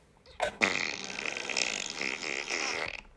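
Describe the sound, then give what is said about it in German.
A plastic straw squeaks through the slot of a McDonald's cup lid: a brief scrape, then a long, loud, grinding creak lasting a few seconds, with a buzzy, pulsing texture and no talking. “Aber jetzt genießt dieses Geräusch vom äh, McDonalds Strohhalm Öffnungsschlitz.”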